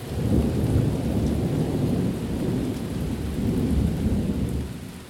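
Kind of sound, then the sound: nature, thunder with rain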